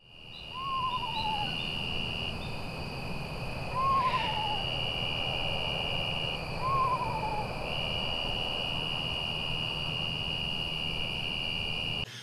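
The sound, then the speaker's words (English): An eastern screech owl gives three descending, whinny-like calls spaced a few seconds apart over steady night insect drone and a low background rumble. There is no talking. “Yeah, it's that eerie tremolo that's almost ghost like, and then you have that almost whinny scream, if you will, that's like somebody screaming in the cemetery.”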